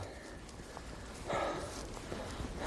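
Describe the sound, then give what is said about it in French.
Soft, irregular hoof thuds of the horse Quimper on the ground during a training session, a few steps spaced out and fairly quiet, with a brief burst of louder rustling noise partway through. No one speaks. “Après l'entraînement, le cheval Quimper a droit à une douche.”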